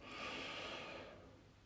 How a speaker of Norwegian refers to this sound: Så sitt med ryggen rett, og vi skal puste dypt inn først.